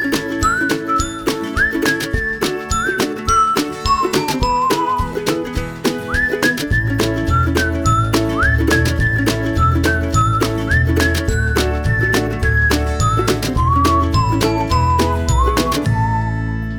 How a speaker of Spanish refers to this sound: Pero antes les voy a poner el silbidito hermoso que me encanta.